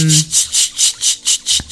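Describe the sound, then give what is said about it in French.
A person imitates a cicada with a loud, raspy buzzing chirp repeated in a steady rhythm, about eight pulses, preceded by a brief low vocal hum. “Pourquoi il fait la cigale, lui”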